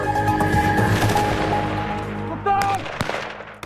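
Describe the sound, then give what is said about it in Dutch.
A few sharp gunshot cracks from Dutch Defence (Defensie) ammunition ring out in the second half, irregularly spaced, over a steady low droning hum with a faint tonal whine that fills the whole clip. “gaan we deze geluiden straks nog wel horen.”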